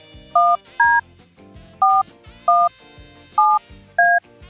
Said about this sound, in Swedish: Nu ska vi ringa upp en tjej som har chans att vinna en plats på planet.